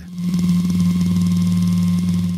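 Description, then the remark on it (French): A vibrating sex toy with two tips buzzes steadily and intensely, a continuous low motor hum with a slight fluttering pulse, running alone without any talking. “Ça, c'est vraiment pour les préliminaires, mais ça vibre, c'est quand même très intense, la vibration.”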